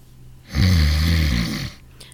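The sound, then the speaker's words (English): A single long, loud snore from a sedated male patient in a hospital, with a deep rumbling, rattling low drone, rising sharply and fading out after about a second, with no talking. “I gave him a sedative. That'll quiet him down. Well, he isn't very quiet.”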